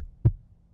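A single low, muffled, dull heartbeat thump of a six-month-old baby, heard through a doctor's metal stethoscope placed on the chest during a checkup, followed by a faint steady hum. No one speaks.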